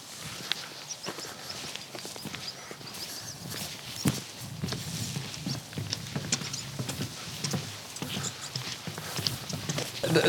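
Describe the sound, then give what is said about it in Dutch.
A very old horse walks at a steady pace, its hooves clip-clopping in an uneven rhythm, with a soft background murmur and outdoor rustle throughout. “Maar dit is al een heel oud paard.”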